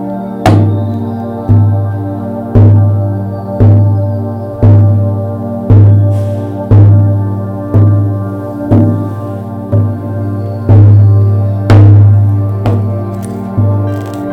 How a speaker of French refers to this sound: Et tu entends le son du tambour tranquillement devenir de plus en plus fort.